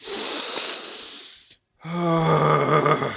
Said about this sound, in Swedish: Det är så här. Flämtar och frustar ut någon slags slagg eller damm.